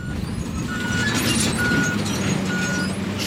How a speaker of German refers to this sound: schweres Gerät, wie ein großer roter Traktor, der so etwas wie einen gigantischen Vertikutierer über den Boden zieht, Büsche und Gestrüpp zerkleinert.